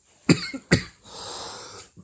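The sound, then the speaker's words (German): Two sharp coughs in quick succession from a person with a slight urge to cough, followed by a long, breathy exhale and a faint catch of breath at the end. No talking. “da ist auch so ein kleiner Hustenreiz in meiner, also in diesem drückenden.”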